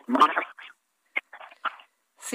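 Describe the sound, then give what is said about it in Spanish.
A voice heard on air breaks up over a distorted line with heavy interference, cutting in and out in short, choppy bursts separated by abrupt silent dropouts, ending with a harsh burst of static. “escuchamos muy mal, se escucha ahorita con mucha interferencia aquí al aire.”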